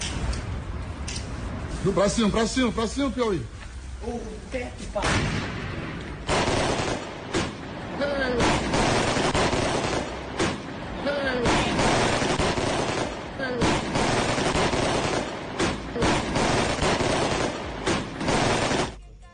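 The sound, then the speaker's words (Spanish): Gunpowder fireworks set off in the morning at the door of the Argentina hotel crackle and bang in rapid, loud bursts, a dense barrage of sharp explosive pops running throughout, with a crowd's voices and shouts mixed in beneath. “Miren, así, así sonaba esta mañana la, pólvora en, en, la puerta del Hotel de la Argentina.”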